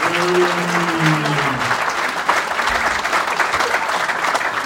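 An audience claps steadily in a dense, sustained round of applause that stays loud throughout, with a voice briefly audible at the start beneath the clapping. The applause thanks the person who has been helping with the microphone all night.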